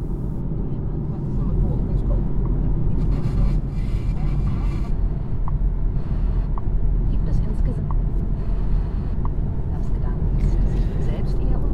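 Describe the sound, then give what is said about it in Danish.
Steady low rumble of a car interior while driving on the way to Lykum Kloster, a continuous engine and road drone that stays even throughout, with some faint voice-like murmuring in the background. “Jeg sidder her i bilen på vej til Lykum Kloster.”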